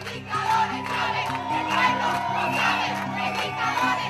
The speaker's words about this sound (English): Hundreds of students were out protesting down one of the biggest streets in Caracas, shouting, Chavez is a dictator and the people know it.